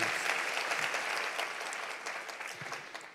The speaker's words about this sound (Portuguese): Se você puder, aplauda Ele mais uma vez.